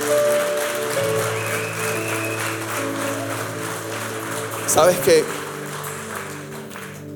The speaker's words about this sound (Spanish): Yo creo que la historia de Tecati y de Glocalmas nunca será igual después de estos tres días de conferencia. Tienes que darle un fuerte aplauso a Dios por eso.